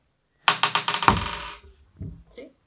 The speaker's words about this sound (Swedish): Vänta, slå din tur först. Slå en tärning. Så högt som möjligt.